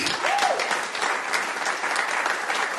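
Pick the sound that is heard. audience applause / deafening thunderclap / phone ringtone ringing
audience applause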